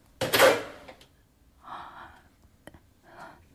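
The door of a house swings open with a loud, rushing burst, followed by softer breathy sounds and a single sharp click; no one speaks.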